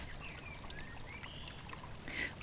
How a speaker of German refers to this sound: Und bringt man es richtig zum Kochen, dann sprudelt es.